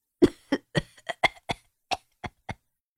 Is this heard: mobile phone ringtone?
no